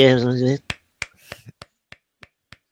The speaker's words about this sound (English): Are you clapping?